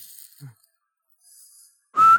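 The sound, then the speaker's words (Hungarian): A loud, sharp whistle blast near the end, steady in pitch and lasting about a quarter second, after a few faint high hisses and a soft low thump. “instant füttyöt rakd oda.”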